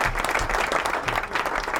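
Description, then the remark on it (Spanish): Steady applause from a group of people for the actions of judge Alejandro Recarey, a dense wash of clapping that stays loud and even throughout the short burst without any voices standing out. “Un aplauso, un aplauso para el accionar del juez, Alejandro Recarey.”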